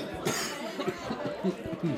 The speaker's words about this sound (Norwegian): Som dere hører på min hoste, så er den litt mindre brun enn eh, den var på Bobbys.